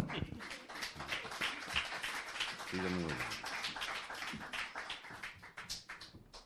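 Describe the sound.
An audience claps steadily throughout, a dense crackle of many hands at an even loudness, with a single voice calling out briefly over the applause midway.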